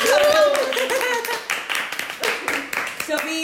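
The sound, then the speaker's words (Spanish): A small group claps their hands in brisk, irregular applause, fairly loud, while voices chatter and call out over the clapping. “Eh, Podemos aplaudir, que me encanta.”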